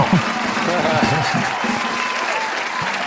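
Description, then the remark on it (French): An applause sound effect: dense, steady applause from a group fills about three seconds at an even level, the clapping blending into a continuous crackle with faint voices murmuring underneath. “Par contre, j'ai des, des, des gens qui applaudissent.”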